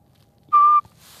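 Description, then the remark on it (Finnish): A single loud, steady human whistle imitating a Eurasian pygmy owl call to lure the owl, on a shore in the evening: one short, level, flute-like note held briefly, followed by a soft breathy hiss. “Tässä on usein ollut varvuspöllö, joka pesii lähimetsissä ja sillä ei ole ihan perinteinen pöllönääni, vaan silloin sellainen vihellys.”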